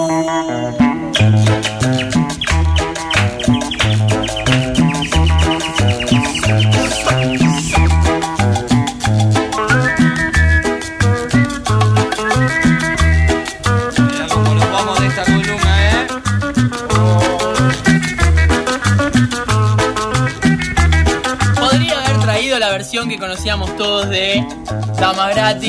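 The original 1972 recording of a Peruvian instrumental cumbia plays loud and steady, with a bouncing bass beat under a bright, wavering guitar melody and bird chirps scattered through the high end, no voices.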